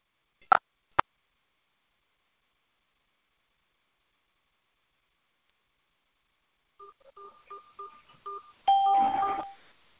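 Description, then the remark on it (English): A quick series of telephone keypad dialing tones as someone calls back into a phone line, about eight short beeps in an uneven rhythm, followed by a louder burst of connection noise; two sharp clicks sound earlier after a stretch of silence. “I'm calling back in. Trying to get this phone working properly.”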